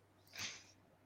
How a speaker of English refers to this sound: Dude, that's my cat. He's senile, bro. he's, a, he, he's like 18 and uh, he's lost his mind. He's lost his damn mind.